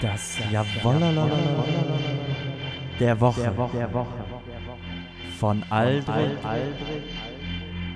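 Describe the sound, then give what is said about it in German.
A short, lively new jingle with a buzzy kazoo melody and voices chanting a repeated phrase, loud, wavering and nasal throughout its eight seconds. “Der neue Jingle”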